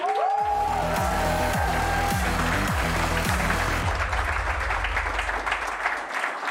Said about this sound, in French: Vous allez pouvoir applaudir très fort. C'est parti pour les cartes blanches, mesdames et messieurs.